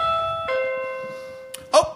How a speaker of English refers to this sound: that's probably our first trick or treaters. Very good, very good. All right, so I'm just gonna I'm gonna go to the door, and that was a nice doorbell.